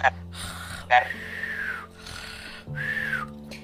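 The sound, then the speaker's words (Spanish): A voice imitates a doll snoring: a few drawn-out, raspy breaths with a faint whistling edge rise and fall in a slow rhythm, fairly loud, with no other talk. “Y yo recuerdo que de la nada el muñeco empieza a roncar y empieza”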